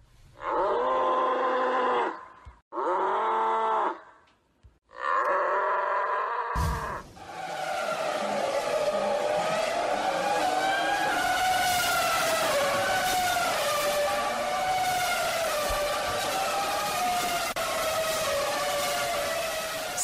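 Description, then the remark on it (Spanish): Race car engines revving loudly: three short whining bursts with rising and falling pitch, then a sustained roar of several engines overlapping, their high pitches sweeping up and down as they accelerate. “Si nos están escuchando desde sus automóviles, no aceleren, no se metieron por error al autódromo hermano Rodríguez, tan solo es el...”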